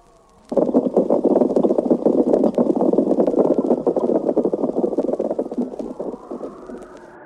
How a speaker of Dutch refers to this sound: Boven water hoort men niets. Maar onder water, tijdens de migratie, maken de grote scholen kabeljauw een enorm lawaai.